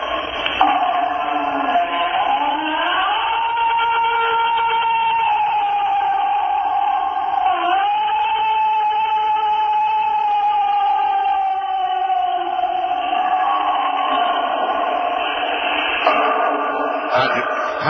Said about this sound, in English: one of his favorite sounds of the time, which was the book, the Bigfoot screech, which we're going to play right here. Try and imagine this outside. L- listen carefully now.